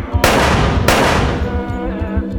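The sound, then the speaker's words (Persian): Two loud revolver shots, fired by a man holding the revolver to Hazhir's heart, crack out about two-thirds of a second apart, each leaving a ringing, fading tail over a low, pulsing rumble underneath. “بنابراین دوباره یقه او رو میگیره هفتیرش رو روی قلب هجیر میذاره و دو تیر دیگه شلیک میکنه”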